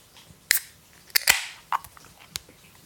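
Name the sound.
beer can being opened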